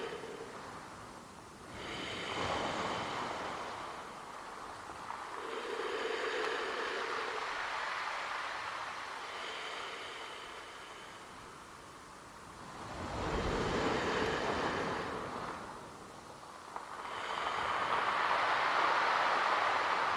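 Sea waves wash in and out in slow, repeated surges, a broad rushing hiss that swells and ebbs several times at a steady, gentle rhythm, with no voices.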